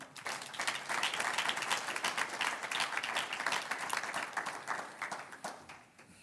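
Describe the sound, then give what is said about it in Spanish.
An audience breaks into sustained applause for the Lord, dense overlapping claps holding steady for several seconds before tapering off near the end. “Un aplauso al Señor.”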